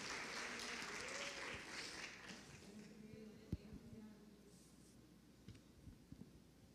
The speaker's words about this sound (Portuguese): Aplauda ao Senhor, queridos.